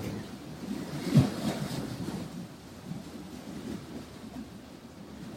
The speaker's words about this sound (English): Just taking a few moments here and now to feel into the rhythms, the sounds, the energy of this great living body of water.